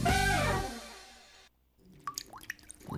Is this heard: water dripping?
yes